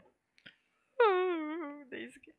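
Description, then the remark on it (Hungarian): A voice imitates a speeding spaceship slowing down with a single drawn-out hum that slides downward in pitch and fades, followed by a short breathy sound. “Az eddig fénycsóvák helyett már érzitek hirtelen egy hanggal, hogy belassul a hajó.”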